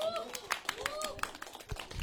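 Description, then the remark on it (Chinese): Audience applause used as a vote for a contestant's true story about a young man who swallows steel pipes: a dense patter of many hands clapping at a steady, moderate level, mixed with shouts and high whooping voices from the crowd. “觉得吞钢管的小哥这个这个故事真实的故事够精彩的，掌声在哪里？”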